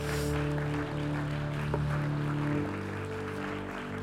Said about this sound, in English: Clap your hands and rejoice in the Lord this morning.